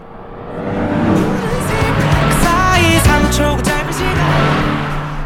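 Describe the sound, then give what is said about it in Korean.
A car beside the listener's car roars past fairly fast, loud engine and road noise swelling and fading over a few seconds, with faint music playing in the passing car partly buried beneath the rush. “옆차가 지나갔어요. 들으셨나요? 순식간에 지나갔죠. 예, 좀 세게 달리는 편이네요.”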